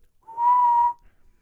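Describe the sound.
A single sustained whistled note imitating a church bell, clear, holding steady for under a second before cutting off, with no talking around it.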